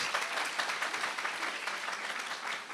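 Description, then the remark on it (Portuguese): A crowd claps steadily for a few seconds for a woman's birthday, a dense, even patter of many hands at a moderate level, with no voices over it. “Palmas para ela.”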